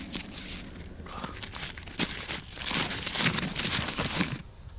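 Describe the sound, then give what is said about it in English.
A paper scroll is unrolled with dry crinkling and rustling, fairly quiet at first, then growing denser and louder for a couple of seconds before easing off. No one speaks. “She searched him for a while and took out a paper roll and opened it.”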